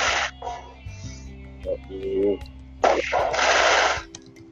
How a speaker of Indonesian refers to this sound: itu siapa yang main petasan di depan rumah nih depan rumah banyak ya